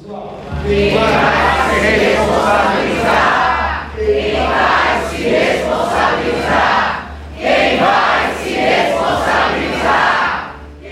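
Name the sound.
audience shouting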